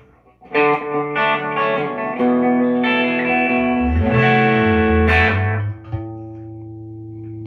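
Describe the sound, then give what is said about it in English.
An electric guitar plays a short, improvised run of ringing, sustained notes and chords with a quick slapback echo trailing each one, loud, with no voices. “Yeah, I could do that, or I could do uh, a little Westwood action. Whatever you want to do. With maybe a touch of slapback.”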